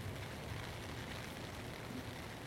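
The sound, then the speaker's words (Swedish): Heavy rain pours down in a steady, dense hiss with no breaks, a continuous wash of pattering that stays even throughout, with no voices. “Och nu börjar det ösregna ja.”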